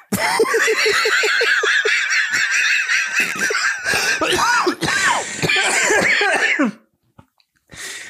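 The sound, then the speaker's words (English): An old man's loud burst of rhythmic, wheezy laughter breaks into a run of harsh, hacking coughs for several seconds, then trails off into quiet with one last faint cough. “old man coughs always old man laughs always turn to coughs.”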